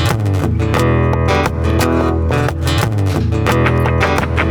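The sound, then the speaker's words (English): A semi-clean electric guitar plays a steady run of ringing chords and notes through the Fender Electric Fat Semi Clean setting in position one, with no effects on it, loud with a full low end, with no voices over it. “It's the Fender Electric Fat Semi Clean.”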